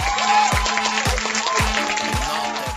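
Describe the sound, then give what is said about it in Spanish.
A short burst of dense crowd applause sound effect, bright and steady, layered over a regular low thumping beat with some tonal music underneath. No one speaks over it. “Ese merece un aplauso.”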